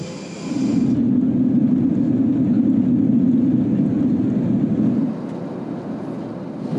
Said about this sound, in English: I'm at the uh, Auckland airport, and I was kind of hoping, you know, delays, cancellations, but unfortunately not.